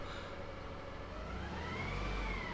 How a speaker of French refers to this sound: non non, il a un gros camion et tout ce qu'il vient de ramasser, il vient de l'emmener à l'arrière du camion tout cela va disparaître, tout cela n'est plus dans la nature.